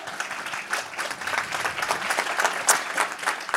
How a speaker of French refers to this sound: Merci, vous pouvez les applaudir effectivement pour ces interventions.